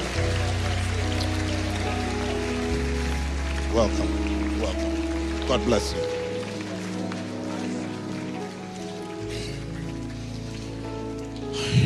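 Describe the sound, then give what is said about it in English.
An audience claps steadily in a dense, continuous patter that stays loud throughout as people come forward to get saved, while a man calls out greetings over it and sustained low keyboard chords play underneath. “Can, don't stop clapping as long as people are coming to get saved.”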